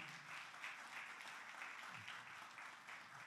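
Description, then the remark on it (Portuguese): A crowd applauds steadily, a dense, even wash of many hands clapping with no break, fairly loud and unbroken by speech. “Pode aplaudir.”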